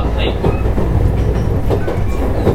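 A JR West 221 series train rolls along the rails with a steady, loud rumble and faint rhythmic clicks from the wheels, heard from inside the car.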